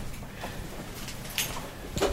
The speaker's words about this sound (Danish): Så nu ser vi lige, om vi kan åbne døren.